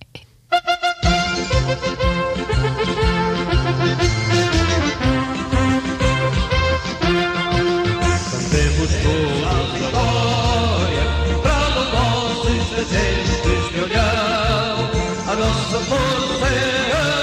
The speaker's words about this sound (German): Hören wir ein Lied? Wir hören jetzt einfach ein Lied, genau. So machen wir es.